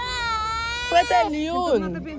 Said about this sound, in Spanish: está llorando por algo que todos los niños lloran.